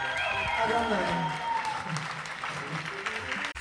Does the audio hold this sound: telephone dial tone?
no